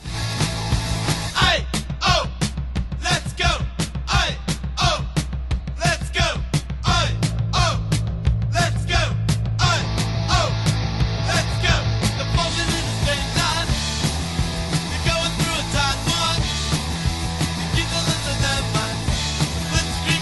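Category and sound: punk rock song playing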